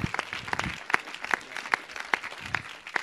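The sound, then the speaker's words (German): Audience applause given for the Lord: many hands clapping in a dense, steady patter, with sharper claps standing out at a regular rhythm of roughly two per second, and a faint murmur underneath. “Lass uns mal dem Herrn wirklich Oh, oh. einen Applaus geben.”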